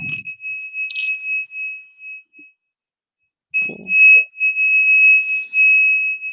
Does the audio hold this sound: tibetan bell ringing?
yes